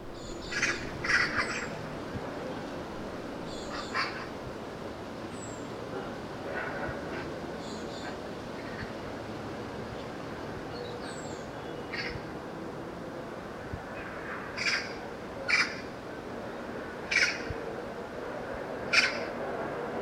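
Harsh, raspy magpie chatter comes in short bursts, repeated at irregular intervals, some clustered, over a steady low outdoor rumble, fairly loud against the background.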